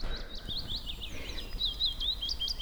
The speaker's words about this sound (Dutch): Ik hoorde net een vink zingen en uh, kiefiet heb ik hier al over horen komen. Tuinfluiter, zwartkop, tjiftjaf. Nou, alleen al op deze plek hier kun je dat al allemaal horen.